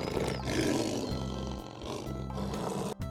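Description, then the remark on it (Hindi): A lion in a jungle roars loudly and continuously, a deep rumbling growl that swells and holds for several seconds, powerful with no voices present. “जंगल में एक शेर रहता था”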